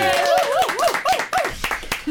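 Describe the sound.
A short burst of applause: sharp, uneven hand claps rattling along for about two seconds, mixed with whooping, laughing voices that rise and fall in pitch.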